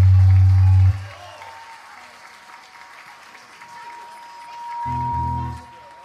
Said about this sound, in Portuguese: E queria dar um salve para essa banda maravilhosa, gente. Aplausos para os meninos aqui.